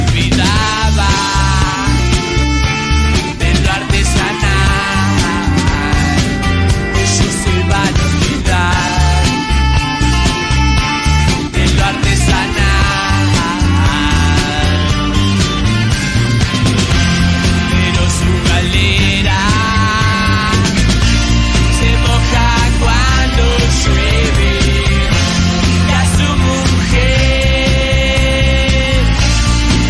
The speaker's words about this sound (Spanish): Bueno, de hecho está grabado, está tocando Luna Park y le dicen Luna Park entero.